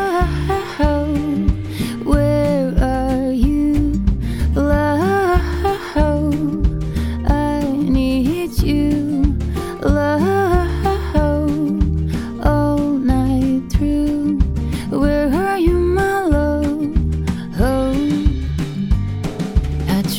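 A Latvian indie pop song by a band from Riga plays loud and continuous for the whole stretch: a steady full-band groove under a melodic sung lead vocal, with no talking over it.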